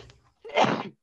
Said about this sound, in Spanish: Salud. Bueno, qué asco, disculpen por esta pausa.